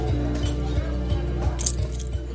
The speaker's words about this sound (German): Er tippt auf die Münze.